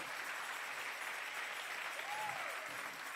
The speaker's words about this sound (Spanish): Y con eso tú le vas a decir, tú y yo, dele el aplauso fuerte al Señor. Déselo, déselo.